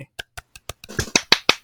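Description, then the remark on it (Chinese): A quick run of about ten hand claps, sharp and percussive, starting sparse and faint then growing louder and denser toward the end, with no talking over them. “好，感谢这个拍手之缘。”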